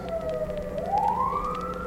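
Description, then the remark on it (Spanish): A police patrol car siren wails as it passes, its pitch dipping then sweeping upward in a long continuous tone, fairly loud over a low rumble of road traffic, with no one talking. “nos voy a dejar que pase la patrulla para que se...”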